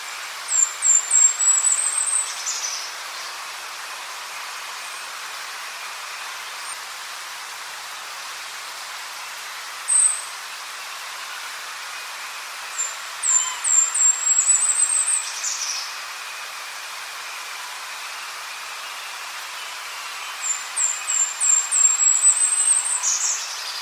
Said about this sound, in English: So once again, that was the Golden Crown Kinglet, and as I mentioned, there is a little bit there that sounds like a chest, uh, chickadee, and we just have chestnut back chickadees here as a general rule.